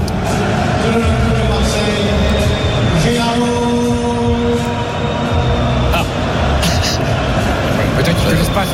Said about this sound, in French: il y a l'annonce de, la compo d'équipe par le speaker qui donne le, prénom, genre Samuel, Gigot. Voilà, le stade qui, qui, s'enflamme